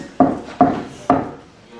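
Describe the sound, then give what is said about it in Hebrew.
Three solid knocks on a wooden house door on a Friday night, made by a man returning from synagogue. The knocks are spaced unevenly about half a second apart and are fairly loud, each with a short resonant decay and no voices. “סיפר לי יהודי, חזר בליל שבת מהבית כנסת, דופק בדלת,”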